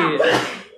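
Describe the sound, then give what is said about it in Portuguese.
A single sharp sneeze bursts out loud, a quick explosive rush of breath that trails off within a second. “Ah, saúde! Saúde!”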